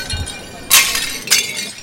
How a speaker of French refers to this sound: Avant qu'elle ait réussi à vendre quoi que ce soit, un homme ivre à cheval galopa à toute allure sur le chemin. Il renversa la vaisselle de la princesse qui se brisa en mille morceaux.